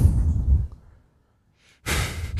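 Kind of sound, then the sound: fault, breathing into the microphone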